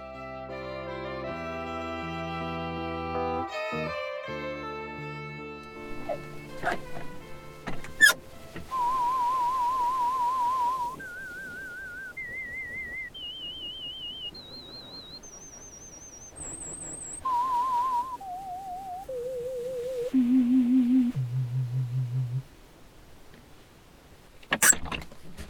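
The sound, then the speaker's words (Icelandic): A series of steady, warbling pure tones used in audiometry (hearing measurement), each lasting about a second, stepping upward in pitch to very high, then stepping back down to low. “þetta voru hljóð eða sagt, tónar sem maður notar í hernamælingu og e, þá er það þannig að e, maður finnur ákveðin styrk sem einstakleikurinn heyrir og síðan lækka maður tónin þar til að hann hættir að heyra hljóðið.”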